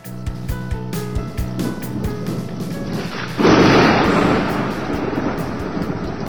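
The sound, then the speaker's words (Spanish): A thunderstorm: steady rain hisses throughout, then a sudden loud thunderclap bursts in partway through and rolls into a long rumble that slowly fades back under the rain. “cuánto agradecen este sonido millones de personas dedicadas a la agricultura, a la ganadería y a los cultivos forestales.”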